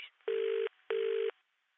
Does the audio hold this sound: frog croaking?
no